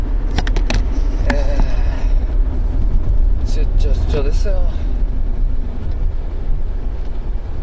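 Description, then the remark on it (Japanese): A steady low engine rumble from a rental car in motion on a business trip runs through the whole recording, with a man talking casually over the continuous drone. “えー、今日は車から出張先の車からお送りします、えー、そのデスネレディオこの番組はラジオトークから…そしてデスネノートの提供でお送りします車からなんで…の曲はありませんごめんなさいねちょっといつもと違うエンジン音だと思うんですけど分かる人はねレンタカーです”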